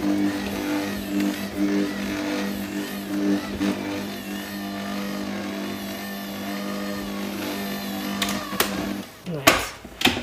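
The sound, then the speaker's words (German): A kitchen machine kneads dough at low speed, its motor giving a steady, droning hum for about nine seconds before it cuts off, followed by a few brief clunks. “Erstmal schön langsam verkneten.”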